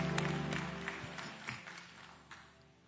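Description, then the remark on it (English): A church audience claps together for the Lord as they take their seats, a dense, steady burst of applause that gradually fades, with a low hum underneath and no one speaking. “Give the Lord a hand clap as you take your seats.”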